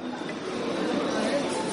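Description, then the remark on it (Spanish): Steady hum of a busy grill restaurant (brasería) dining room, with many overlapping voices blending into constant chatter. No single speaker stands out, and the babble holds at an even, moderate level throughout. “Es el sonido de Brasería La Berrea.”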